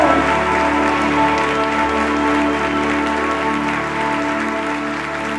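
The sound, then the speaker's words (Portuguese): An audience claps steadily and densely for several seconds, applauding the name of Jesus at a worship service, a loud, continuous wash of applause over a sustained, droning musical backing, with no one speaking. “Aplauda o nome de Jesus, o nome do príncipe da paz, o Senhor dos senhores, Rei de Israel.”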